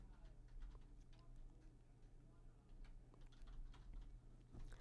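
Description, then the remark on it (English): Soft, irregular clicking of fingers typing on a computer keyboard, quick keystrokes in uneven bursts over a steady low electrical hum, fairly quiet. “Sorry, I'm typing this no, out.”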